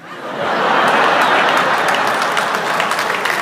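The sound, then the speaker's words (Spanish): An audience breaks into applause, rising quickly within the first half second into dense, steady clapping from many hands that holds loud and even to the end. “¿Qué aplauden ustedes?”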